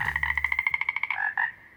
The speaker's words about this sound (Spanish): Eran ranas, Miles de ellas, y por la forma como se escuchaba su canto, estaban ahí justo afuera en el jardín cada una de ellas conversándole a su manera.